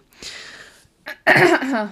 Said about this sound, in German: Boah, man muss sich echt mal räuspern nach einer Weile.